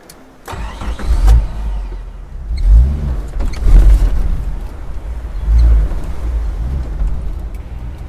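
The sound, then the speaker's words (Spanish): A car drives along with all four windows open and air rushing in, after leaving Rosario, with a steady low engine rumble and rushing wind noise, the engine swelling a few times as it accelerates, with no one talking. “Voy en el auto tomando la Coca-Cola de litro fría que compramos con los pibes antes de salir de Rosario.”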